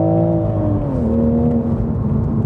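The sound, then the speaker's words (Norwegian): A GR Supra's B58 engine drones loudly at high revs, its strained harmonic whine dipping slightly in pitch before holding steady. No voices are heard. “Den har, den har vel rødmerking på 7000, den B58-motoren, tror jeg. Ja. skriker i vei.”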